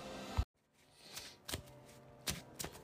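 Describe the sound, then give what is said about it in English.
Cards being shuffled back into a deck, with a handful of crisp riffling snaps spread across a couple of seconds, fairly quiet, no voices. “So shuffle this back in here.”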